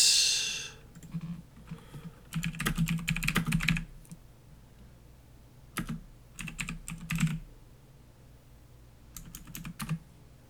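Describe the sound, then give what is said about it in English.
Loud, clattering keystrokes on a computer keyboard while looking something up on the internet, typed in three quick bursts with short pauses between them, with no one speaking. “I have a loud keyboard.”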